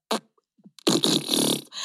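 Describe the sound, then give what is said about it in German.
A person blows a mouth fart imitating a fart: a quick sputter, then a long, loud, buzzy raspberry lasting almost a second, with another starting right after it. No one speaks. “Und dann musst du, also wenn ich dich jetzt frage, guess my fart, dann musst du sagen, oder”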